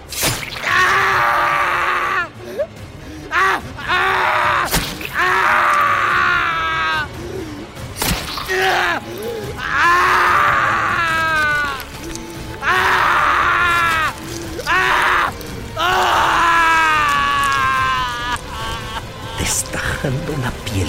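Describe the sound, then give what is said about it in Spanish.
A man groans and cries out in pain as a dagger is driven into his back, in a series of loud, strained bursts separated by short pauses, with sharp impact-like thuds scattered among the cries. “Héctor gritaba de dolor.”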